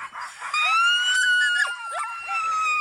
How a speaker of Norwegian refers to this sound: De er så ivrige. Av å, de, og de kan jo trekke veldig tungt. De vil komme seg av sted. De elsker å løpe, tror jeg. De trekker, sånn eh, trekkhunder, ja. Det er, trekkhunder.